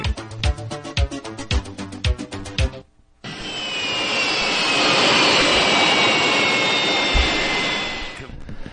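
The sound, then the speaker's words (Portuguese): A short burst of rhythmic music gives way to a loud jet airplane engine roaring steadily for several seconds, a high whine gliding over the broad rushing noise before it cuts off. “Ele já fez com a mão aqui na rádio qual é o movimento que o avião estava fazendo nesse exato instante deste som aí”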